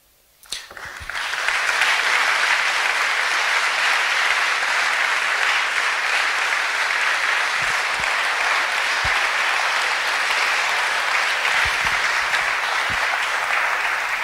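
Sustained audience applause for the late Nello begins abruptly after a brief quiet moment and holds steady and loud for over twelve seconds, a dense wash of clapping with a few sharper individual claps standing out.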